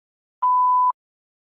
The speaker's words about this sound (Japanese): メッセージは発信音の後にどうぞ。